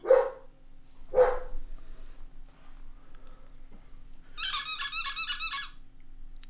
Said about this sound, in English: Oh, hang on a second. My dog's got a rabbit. Hang on a second.